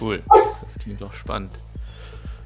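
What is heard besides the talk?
chair squeaking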